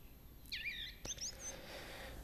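A song thrush sings a couple of short, bright whistled phrases in quick succession over a quiet, steady background hiss, with no talking.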